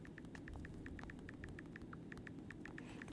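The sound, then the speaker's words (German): Quick, light clicks from typing on an iPhone's on-screen keyboard, tapping in a steady, fairly even rhythm over a low background hum, with no one speaking. “es ist äh, das Tipp auf dem, auf dem iPhone, gell? Ja. Wo er so quasi wie eine Tastatur nachmacht.”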